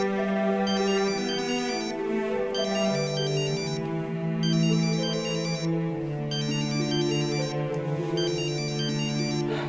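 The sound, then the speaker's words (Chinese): A phone ringtone for an incoming call plays steadily, a bright repeating electronic melody in regular bursts of high chiming tones over a sustained lower chord, with no one speaking. “接吧。 接他干啥？”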